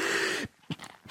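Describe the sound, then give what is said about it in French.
A single loud sneeze, which is blamed on the air conditioning: a sudden, voiced, breathy burst that stops abruptly, followed by a few short, quieter sniffs or breaths. “À vos souhaits. Pardonnez-moi, c'est la climatisation.”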